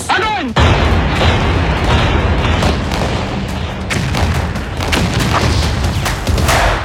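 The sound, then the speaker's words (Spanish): Loud, sustained cannon fire with repeated booming explosions over a continuous rumbling roar, a few sharper blasts standing out, preceded by a brief whistling sweep at the start. “pero el fútbol se apagaría hasta 1950, una vez que los aires de guerra se convirtieron en cañonazos.”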